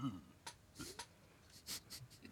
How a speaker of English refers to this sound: Cheers to you. Cheers. Here's my favorite part of the episode when I listen to myself drink. Least favorite part.